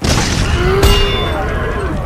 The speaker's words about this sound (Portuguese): E de repente, da barriga da Hidra, uma explosão ressoou e.